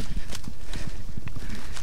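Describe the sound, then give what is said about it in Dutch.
Steady footsteps walking along a cross jetty that leads out to the Eem river, each step a hollow thud in a regular rhythm, with no talking over them. “We lopen hier op een van de dwarsstijgers.”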